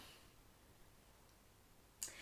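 Near silence, then a single brief, crisp papery rustle near the end, like a page being flipped over. No one speaks.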